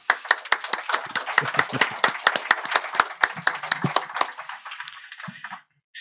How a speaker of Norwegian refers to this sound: Gi han en god applaus.